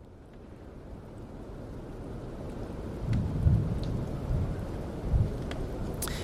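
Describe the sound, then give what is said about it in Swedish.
Steady rain hisses throughout while low thunder rolls in, swelling to a deep rumble midway and grumbling again near the end. No voices are present. “Är det verkligen gloomy om det åskar?”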